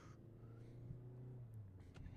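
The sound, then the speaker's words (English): Steady low engine drone and road rumble from inside a moving car merging into traffic on Peach Street, heading towards Route 19, the motor's hum holding fairly even throughout, with a slight lift in pitch as it accelerates. “And we're merging into traffic.”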